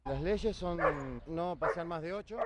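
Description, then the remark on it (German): Several dogs bark and yap in quick, overlapping bursts, some calls rising and falling in pitch, keeping up a loud, continuous chorus throughout. “Laut Vorschrift dürfen wir nur mit acht Hunden gehen, müssen uns bei der Regierung registrieren lassen und die Tüten mitführen.”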